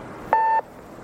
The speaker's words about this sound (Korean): 지금은 전화를 받을 수 없으니 삐 소리가 난 후에 음성 메시지를 남기시기 바랍니다.